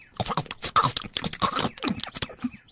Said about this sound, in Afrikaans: Terwyl hy nog se loop, hoor hy skielik 'n snaakse geluid, so al asof iemand iets kou.